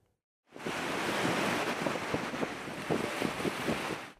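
Rough storm surf at the İskenderun shore in Hatay, Turkey, where the sea keeps overflowing after the earthquake, crashes and churns continuously, a dense roaring wash of water with bursts of spray, loud, with no voices.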